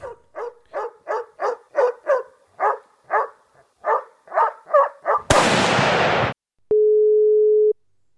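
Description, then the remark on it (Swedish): A quick run of dog barks gives way to a short burst of harsh static, then a single steady phone ringing tone sounds for about a second, loud and clear, with no one talking. “därför så ska vi försöka bättra på oss nu och faktiskt ta och ringa upp Klasse”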